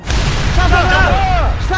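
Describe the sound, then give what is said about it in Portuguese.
A loud, sustained explosion sound effect rumbles with heavy low-end booming for nearly two seconds, while a voice briefly rises over the roar midway through. “Quando eu bater palma aqui, você bota explosão”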